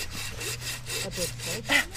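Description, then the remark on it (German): A hand saw cuts steadily through a tree trunk, repeated rasping strokes in a regular back-and-forth rhythm, moderately loud, with a low hum underneath. “Und immer die, das ganze Sägeblatt genau. benutzen.”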